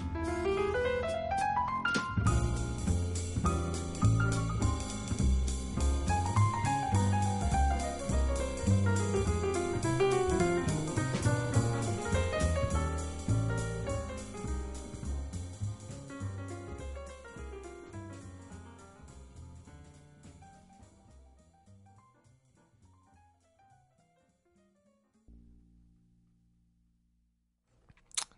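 A jazz piano trio plays: flowing piano lines over walking bass and soft brushed drums, with no voices, gradually thinning and fading out near the end.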